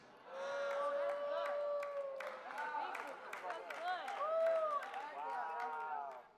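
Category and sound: crowd, audience clapping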